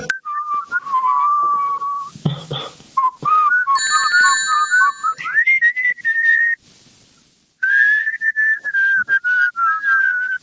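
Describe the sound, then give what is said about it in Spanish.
A person whistles a song melody, clear sustained notes that glide and waver, broken by a few short pauses and a brief quiet stretch before the tune resumes. “Ah, pero este, era yo que la silbaba.”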